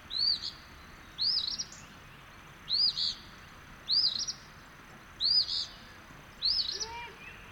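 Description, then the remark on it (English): An eastern phoebe sings excitedly at dawn near a main parking area, a steady series of short, raspy two-part phrases, about one every 1.3 seconds, clear over the soft, constant rushing of a river in the background. “As dawn unfolds, I wander the grounds near the main parking area, soon finding an eastern phoebe singing excitedly with the gentle rushing sound of the river audible in the background.”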